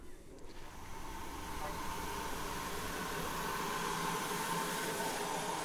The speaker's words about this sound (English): The first down train of the morning is now just coming into Ropley.